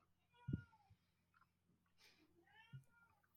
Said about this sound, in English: Oh my gosh. there is a cat. oh wow. Sorry for the cat.